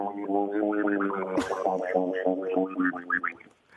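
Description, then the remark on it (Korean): A voice imitates a duck farting with every step it walks, a continuous run of nasal, quacking vocal sounds broken by sputtering bursts, with one sharp puff about midway through. “아, 걸을 때마다 방귀 끼는 오리.”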